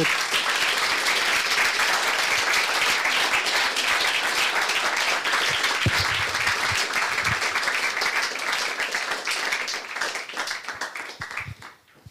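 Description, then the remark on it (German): An audience applauds a speaker at the close of a talk, steadily, a dense wash of many hands clapping at once that holds strong for most of the time, then thins out and fades in the final couple of seconds. “Ich möchte nochmal bitten um einen kräftigen Applaus.”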